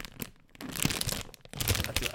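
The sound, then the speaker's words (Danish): A crinkly Winter Edition Chokofant snack package being torn open, with irregular, bright crackling and rustling in two loud stretches separated by a brief quieter pause, the plastic crunching unevenly throughout. “Kender du ikke det der med, når man lige åbner noget nyt”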